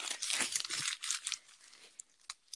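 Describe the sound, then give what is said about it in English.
Loud, rapid crumpling of paper, a dense burst of crackling and crinkling for about a second and a half, then a few scattered sharp crinkles as it tapers off. No voices. “Fair warning: I'm crumpling paper really quickly, so so yeah.”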